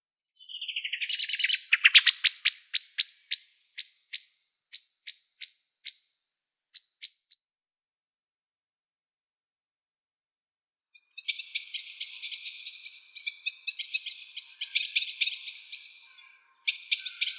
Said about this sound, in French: l'hirondelle rustique.